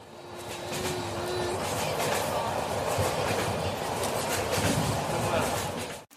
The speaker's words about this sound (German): Wir haben uns für den Zug entschieden und unsere große Empfehlung sind da die Nachtzüge, eine richtig, richtig tolle Art zu reisen und das monotone Rattern der Züge, das ist das allerbeste Schlafmittel.